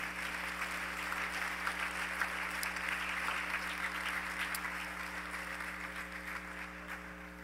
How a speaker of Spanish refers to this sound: De un aplauso al Señor, ese lo merece.